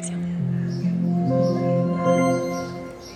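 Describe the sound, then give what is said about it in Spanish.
A smooth electronic chime melody from an Echo smart speaker being set up for Alexa while connecting to Wi-Fi: soft, sustained tones step through a few gentle notes and ring on for about three seconds before fading slightly, with no talking. “Vamos a ver si la bocina hace algún ruido más.”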